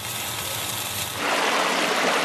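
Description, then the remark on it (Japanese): Steak sizzling in a hot pan: a steady, crackling hiss that swells louder about halfway through, continuous with no voices. “あなたもこんな音で癒されてみませんかステーキを焼く音”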